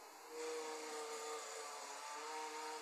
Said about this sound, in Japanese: なんか誰か掃除機かけてるそうごめんなさい芝刈りが始まってしまいました外